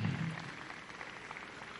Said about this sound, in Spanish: Ok, gracias muchachos, un fuerte aplauso para todos ellos.